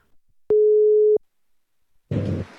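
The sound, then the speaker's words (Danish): A single steady electronic ringing tone of an outgoing phone call to a friend plays clearly for under a second, followed by a pause and then a short burst of rough, noisy line sound, as if the call connects. “om vi ikke skulle ringe til min ven Norula og høre, om han har lyst til at spise aftensmad”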